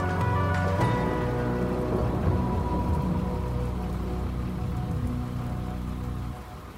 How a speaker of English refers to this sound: What the hell are you all doing out in the rain like this?